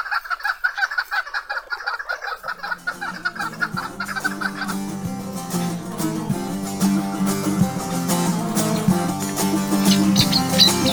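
A chukar partridge calls in a rapid, rhythmic series of loud clucks, then instrumental music fades in underneath and builds until it drowns the bird out.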